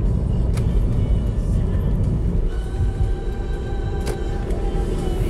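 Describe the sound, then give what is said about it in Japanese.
Steady low rumble of a car in motion heard from the cabin while the driver changes lanes, with road and engine noise filling the space and a few faint tonal whines rising above it. “あれ何話したっけ今車線変更して忘れちゃった”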